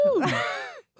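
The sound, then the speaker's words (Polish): A person vocally imitates a bird's screech: one loud, strained, sliding squawk lasting most of a second, followed by a brief pause and the start of another cry. “został tym ptakiem teraz.”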